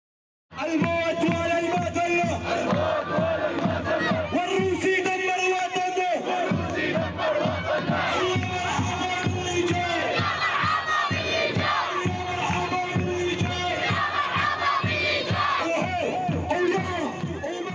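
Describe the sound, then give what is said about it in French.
A large crowd of Syrians rallying on a Friday in the Idlib region chants revolutionary songs and mobilization cries for prisoners loudly in unison, voices rising and falling in a steady rhythmic song that carries on without a break, dense and full throughout. “les Syriens se rassemblent pour hurler leurs espoirs. Les chants révolutionnaires se succèdent aux cris de mobilisation pour les prisonniers.”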